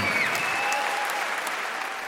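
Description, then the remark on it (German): The audience at a concert by Cuban pianist with a band applauds steadily. Dense clapping from many hands forms a continuous, fairly loud wash of sound with no voices standing out. “Tja, und Sie hören, da waren nicht wenige Menschen im Publikum beim Konzert des kubanischen Pianisten … mit der ….”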